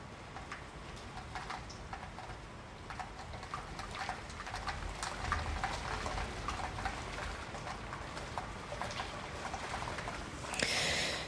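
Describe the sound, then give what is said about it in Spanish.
Steady rain from an electrical thunderstorm pours down outside, a dense constant hiss dotted with sharp drip and splash sounds, with no one speaking. “Ahorita mientras te estoy grabando este episodio está cayendo una pinche tormenta.”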